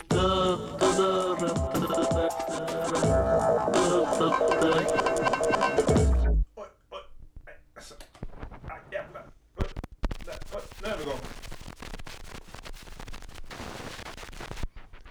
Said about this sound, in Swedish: Eh, vi drar en bumper som vi faktiskt har till det här.